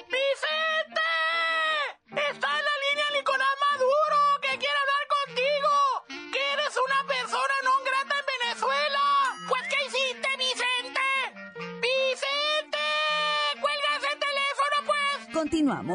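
Goats bleat over and over in a loud, nearly continuous chorus of wavering, nasal cries, several animals calling with hardly a pause between them.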